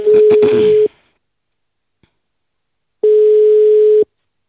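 A telephone ringback tone as Ekstrabladet journalists place a call to the hairdresser of Mathias Skelmose: two steady, moderately loud beeps about a second long, separated by a two-second silence, with some rustling noise over the first beep.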